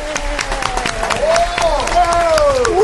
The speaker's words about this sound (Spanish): Así que yo quiero que desde Bogotá y acá en Cali recibamos con un fuerte aplauso al maestro ….